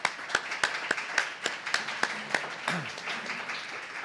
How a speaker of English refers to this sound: Please give yourselves and our panelists and Great Lakes a round of applause.